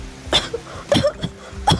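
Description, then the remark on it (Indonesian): A short coughing fit: three harsh coughs spaced about half a second apart, with a smaller throaty cough between the last two, and no talking. “Bopung melambaikan tangan tanda menyerah. Dia terbatuk-batuk lalu mengatakan,”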